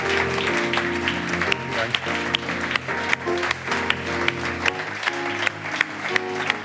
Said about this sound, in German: Ein ganz, ganz großen Applaus für Charlie Graf. Vielen, vielen Dank.